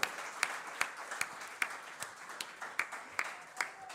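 An audience at a sermon applauds itself, clapping together in a steady rhythm, about ten sharp, even claps over a soft wash of scattered crowd noise, with no one talking.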